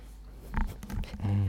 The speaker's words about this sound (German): Dein Hund beängstigt mich jetzt. Mini, hör doch einfach das, auf.